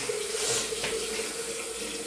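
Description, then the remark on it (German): Tap water runs steadily into a flower vase to put flowers in water, a continuous hiss and gurgle with a slight rising tone as it fills, with no voices. “darf ich die Blumen kurz wenigstens ins Wasser stellen?”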